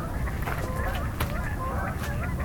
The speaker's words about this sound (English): Lots of Canada geese further off.